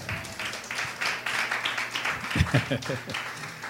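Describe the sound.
An audience breaks into applause for the speaker's wife, a dense, steady patter of many hands clapping for a few seconds, with a voice briefly speaking over the clapping partway through.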